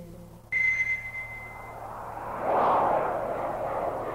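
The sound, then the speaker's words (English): A steady airplane engine drone hums throughout a flight, joined by a sharp high whine, with a broad rushing swell rising midway. “I came to on a plane in flight, handcuffed to the armrest of my seat.”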